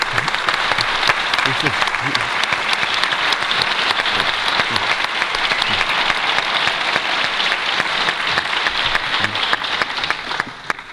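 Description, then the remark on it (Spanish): Steady, sustained applause from an audience, dense overlapping claps filling the whole stretch at a strong, even level before easing slightly at the very end, with a few faint voices underneath. “Así que, amigo mío, muchas gracias por tu trabajo, por tu amistad y este aplauso yo creo que es más que nada.”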